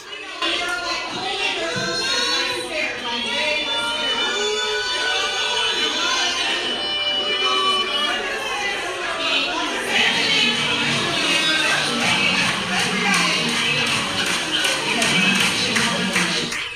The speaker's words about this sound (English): You can hear everyone talking over me now. They're now clapping and booing me off stage.